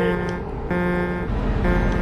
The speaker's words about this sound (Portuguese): Quem quer que eu buzine aí? Buzina!